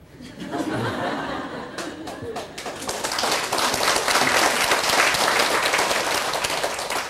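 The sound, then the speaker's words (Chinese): An audience at a full-house daytime sutra lecture breaks into steady applause that swells and holds for several seconds, dense overlapping claps with a few scattered laughs mixed in. “我不知道你鼓掌是什么意思啊？”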